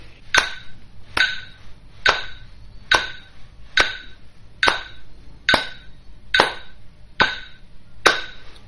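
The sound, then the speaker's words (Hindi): Hands clap sharply on each beat of a metronome app, a steady, even beat of about ten crisp claps spaced evenly under a second apart, with no one talking. “सो metronome app के साथ सप्तक गाने से पहले लेट्स सी कि आप उसके साथ क्लैपिंग कर सकते हैं कि नहीं हर बीट पे क्लैप करना है”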